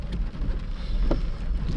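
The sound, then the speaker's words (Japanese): Heavy rain pours down on a cold day in Sendai in a steady, dense hiss with a low rumbling undertone, continuous throughout, with no voices. “さあそれにしてもね寒い仙台大雨のせいでね体がねすごい寒いです”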